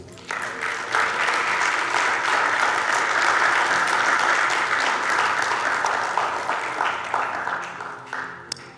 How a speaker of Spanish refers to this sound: Amén. Dele un aplauso a Cristo.